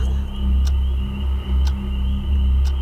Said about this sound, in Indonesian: Suara jam berdetak.